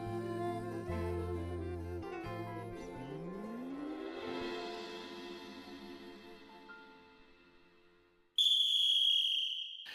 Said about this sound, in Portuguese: Apito juiz e tá valendo